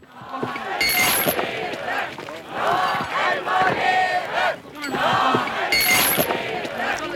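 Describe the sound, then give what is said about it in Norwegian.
Hundreds of people at a protest tent camp at Stilla in Alta, Finnmark, Norway, opposing the damming of the Alta river, chant and shout together outdoors in loud, surging waves, with brief lulls between rhythmic bursts of many voices and occasional clinks and bumps underneath. “I Alta samla hundrevis av mennesker seg i en teltleir på en plass som het Stilla. De ville stoppe neddemminga av Altaelva.”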